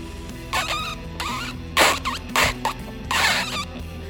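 A string of squeaky, high-pitched cartoon fart noises in several short bursts with wobbling pitch, playing over a soft, steady musical background.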